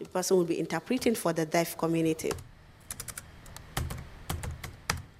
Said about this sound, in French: est assise à son bureau et elle tape une lettre.